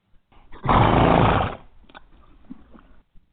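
A horse lets out one loud, breathy snort lasting about a second, followed by quieter snuffles and faint rustling, with no talking.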